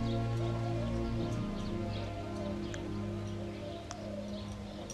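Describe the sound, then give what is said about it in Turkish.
Scattered, faint bird chirps and short tweets over a steady low droning hum, with no talking. “Bir süre hep beraber nefesler alalım burada kuşların eşliğinde. Kuşların cıvıltısı hem bize yaşam enerjisi versin, keyif versin, neşe versin.”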